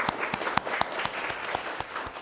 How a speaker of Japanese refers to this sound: イエス様に拍手したいと思います。